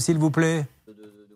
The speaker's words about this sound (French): Vous venez de recevoir un texto, on vient de l'entendre